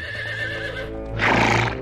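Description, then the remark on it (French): A horse gives a loud whinny that rises into a harsh burst near the end, with hooves clip-clopping steadily underneath, as Merlin rides with Uther atop a huge cliff on a summer evening. “Un soir d'été, alors qu'il se promène à cheval avec Uther au sommet d'une immense falaise”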